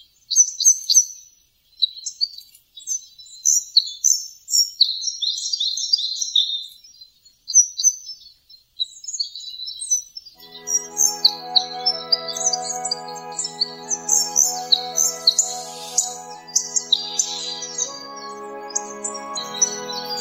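Red crossbill calls, a steady run of sharp, high chirps repeated; partway through, soft sustained music rises underneath while the chirping continues.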